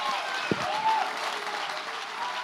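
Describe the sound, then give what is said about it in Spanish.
An audience breaks into steady, sustained applause for God, a dense wash of clapping that fills the whole clip, with a brief shout rising over it near the start. “Si hay alguien aquí que va a aplaudir a Dios, que lo haga.”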